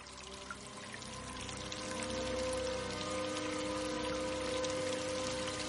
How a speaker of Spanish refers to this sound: Un charco de agua se extiende por el suelo del almacén. Cae al sótano por las grietas que separan los tablones.